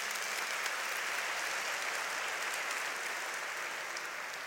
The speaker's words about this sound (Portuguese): Você pode dar uma grande salva de palmas para Jesus.